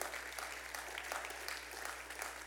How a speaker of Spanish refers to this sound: Wow, dele un aplauso al Señor.